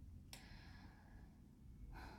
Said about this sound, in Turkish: şöyle derin bir nefes alayım.